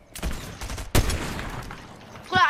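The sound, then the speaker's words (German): Sharp video game sniper rifle shots ring out, a couple of loud cracks with a heavy one near the middle, echoing tails between them, and a brief tonal chirp at the end. “Wir schießen mal ein paar Sniper-Schüsse.”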